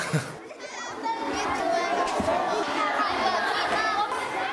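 A crowd of primary school children from first to fourth grade storms into a school gym, a steady loud swell of excited chatter, high-pitched shouts and squeals overlapping continuously with no single voice standing out.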